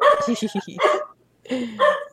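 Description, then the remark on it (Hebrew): A dog named Richard barks in two quick bursts, the first a run of short rapid yaps, then a brief pause before a second round of sharp barks. “ריצ'ארד, על מי אתה נובח?”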